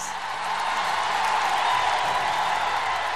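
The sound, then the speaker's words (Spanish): A thunderous ovation of dense, continuous clapping from a large crowd, given in tribute to a hospital volunteer during the coronavirus crisis, loud and steady throughout with a faint roar of cheering mixed in. “Esta tronadora ovación es para”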